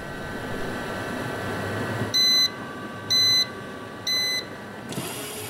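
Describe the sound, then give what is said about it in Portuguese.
A laboratory centrifuge hums steadily, spinning to disaggregate tissue from marrow extracted from zebrafish, then three evenly spaced electronic beeps sound about a second apart before the motor noise shifts. “Este é o som de uma centrifugadora no laboratório.”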